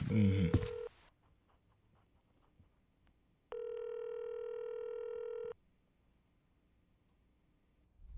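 A telephone dial tone sounds loud: a short burst at the start over some handling noise, then a steady, unbroken tone for about two seconds after a quiet pause.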